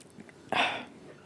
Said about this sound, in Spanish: Y me parece oportuno darle inicio a esto con un trago, así que me van a dar un segundo.